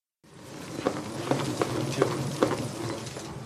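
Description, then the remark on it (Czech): A salad spinner whirs steadily, spinning water off rinsed lettuce at a restaurant in Líšnice, a continuous rushing spin with light rhythmic clicks every half second or so. It is moderately loud, and there is no talking. “Tohle je zvuk, kdy se odstředuje voda ze salátu.”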